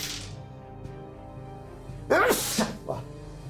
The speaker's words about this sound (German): Gesundheit. Also, Gesundheit.